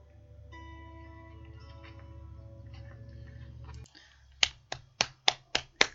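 Six slow, sharp hand claps in an even rhythm ring out after a steady low hum with faint tonal notes cuts off. No one speaks.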